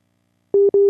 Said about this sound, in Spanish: ahí sonó, debe estar reconectando WhatsApp.